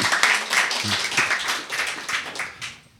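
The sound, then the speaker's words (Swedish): Audience applause, a dense, steady patter of many hands clapping for about three seconds, fading slightly at the end, with some voices mixed underneath. “tack för applåderna här.”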